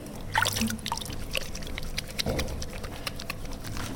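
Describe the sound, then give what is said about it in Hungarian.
Wet, squelchy rubbing and soft splashing as hands work up a lather with ordinary baby soap and water, with irregular slippery squishes and trickles of water throughout, moderately loud and with no talking. “Áttekerjük keresztirányba is, és most vízbe fogjuk mártani. Kicsit átnyomkodjuk. Megszappanozom a kezemet.”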